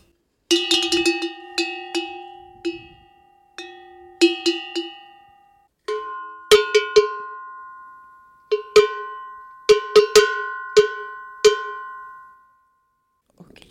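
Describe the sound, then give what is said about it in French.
Two livestock bells from a collection, the only two good ones from a breeder's point of view, rung in turn, each struck in a series of clanging, ringing hits with lingering metallic tones, fairly loud, with brief pauses between strokes and no talking. “Et euh, donc, comment dire on peut, les, on peut les écouter On peut les écouter, une après l'autre.”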